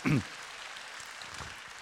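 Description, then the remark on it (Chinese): An audience applauds in praise of God, a steady, dense patter of clapping that holds an even level throughout, opening with a brief louder burst at the very start. “把掌声归给神好吗？”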